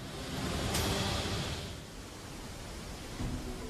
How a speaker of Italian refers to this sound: Le persone che ne hanno ammirato la straordinaria potenza sono migliaia. Le cascate del Niagara riversano più di 3 milioni di litri al secondo di acqua, producendo abbastanza energia da generare 2,4 milioni di kilowatt di potenza.